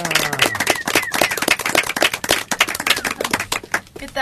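Audience applause: many hands clapping in a dense, steady stream for about four seconds, fairly loud throughout, with a few faint voices or whoops mixed in near the start.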